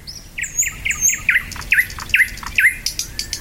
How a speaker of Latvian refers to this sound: Latvijā kūko dzeguzes un sākušas pogot lakstīgals, dabas pilnbriets, tuvojas.